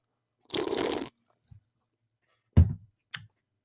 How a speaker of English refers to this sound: But yeah, I'm going to start off with the first inaugural sip of the uh, mango white claw.